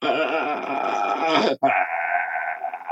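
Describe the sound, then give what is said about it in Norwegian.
A voice imitates agonal gasping breathing, the residual breathing that can occur in the first minutes after cardiac arrest: a loud, strained, groaning rasp drawn out in two long pulls, separated by a brief break about halfway through, with no words spoken. “Fordi i løpet av de første minuttene etter hjertestans så kan du godt ha det som kalles for agonal pust, altså sånn restpust.”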